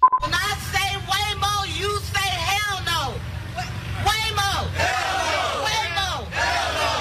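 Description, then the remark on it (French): A crowd protesting against autonomous cars chants and shouts in loud, rhythmic bursts of many overlapping voices, with a steady low rumble of street traffic underneath throughout. “Euh, donc j'ai assisté au moment de cette audition à une manifestation anti-voiture autonome qui n'avait pas attiré grand monde.”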